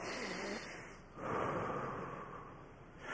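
A slow, deliberate breath drawn in and then pushed out, imitating the sound that Hebrew scholars say is closest to God's name, "I am who I am"; each phase a soft airy rush lasting a second or two, with no talking.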